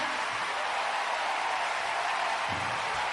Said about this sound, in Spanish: Así que un aplauso para ella.